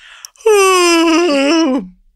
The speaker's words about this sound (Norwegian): Bare sånn demonstrativt skal, skal gjespe foran alle, sånn at folk vet at du har det kjipt.